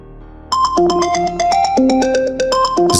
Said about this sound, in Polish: Znowu ten pieprzony telefon. Nie odpuści. Ten frajer nie odpuści. Będzie tak wydzwaniał w nieskończoność.